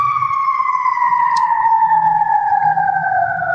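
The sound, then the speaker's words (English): A loud emergency vehicle siren wails steadily, its pitch sliding slowly downward as it passes outside, with a low traffic rumble underneath and no one talking. “Here comes the morgue truck for the for the joke at the end of this Jesus.”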